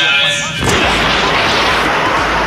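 A door is pushed open by hand using muscle power, a loud, continuous rattling rumble that starts abruptly after a brief tonal hum and keeps grinding steadily to the end, with no talking.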